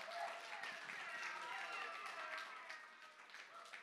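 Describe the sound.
An audience claps steadily for a few seconds, a dense wash of many hands at a fairly even level, with scattered voices and cheers mixed into the applause.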